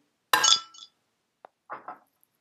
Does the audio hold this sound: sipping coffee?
no